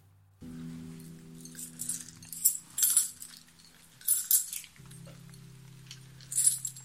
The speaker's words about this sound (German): Und sie legt erst ein paar Münzen hin dann Zähne. Ihr hört die Geräusche, oder?